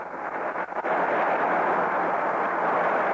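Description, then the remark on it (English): A stadium crowd applauds pitcher Ray Washburn as he leaves the mound in a baseball game against the Detroit Tigers, a dense, steady wash of clapping and cheering that holds loud throughout after a brief dip near the start, with no voices speaking over it. “There's a round of applause for Ray as he leaves the mound.”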